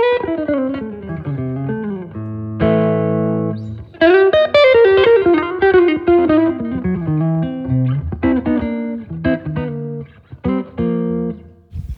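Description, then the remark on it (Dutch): Electric guitar with a humbucker pickup, a small guitar that can be screwed apart to fit in a suitcase, plays a lively run of single notes and chords, bright and fairly loud, with sustained ringing tones and a slight effect-laden sheen; no talking. “vind, ik, vind dat dus een heel tof gitaartje. Weet jou ook met zo'n humbucker in.”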